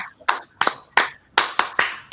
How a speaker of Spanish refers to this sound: Un aplauso a Fernando. Un aplauso a varias otras personas que contestaron bien.